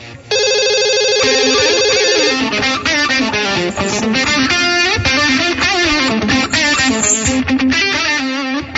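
A telephone rings loudly on the line during an outgoing call, a steady electronic tone that shifts into a busy, melodic ringtone pattern, continuing for several seconds with no one speaking.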